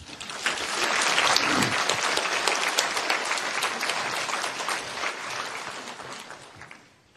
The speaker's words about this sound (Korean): 우리, 우리 평신도 성도들이 이렇게 쓰실 때 항상 떨릴 수가 있는데 따뜻한 박수로 한번 격려해 주시기 바랍니다.